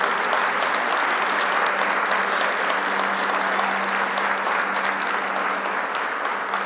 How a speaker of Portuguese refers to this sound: Aleluia. Se você pode, aplauda Jesus Cristo por isso.